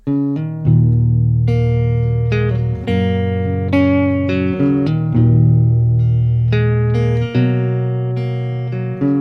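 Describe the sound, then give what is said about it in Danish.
A song plays loudly and steadily, with sustained electronic-sounding chords and a deep bass line that shift every couple of seconds, and a brighter melody on top. No voices are heard. “Den her sang hører jeg, når jeg egentlig er til stede i det triste, uden at blive trist.”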